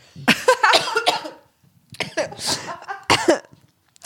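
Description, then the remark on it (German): A person coughs in several harsh, spluttering bursts, loud, with short pauses between them, after choking while speaking. “Ich habe mich vor lauter Wissen verschluckt.”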